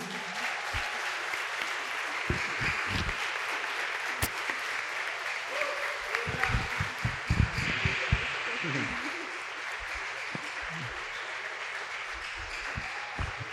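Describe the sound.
A crowd applauds loudly and steadily, a dense wash of clapping that holds for the whole stretch, with a few sharper individual claps standing out and some voices faintly mixed in.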